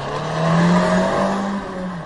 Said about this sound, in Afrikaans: So hy klink maar soos enige ander moderne viersoender petrol.